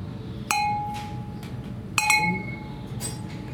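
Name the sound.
beer glasses clinking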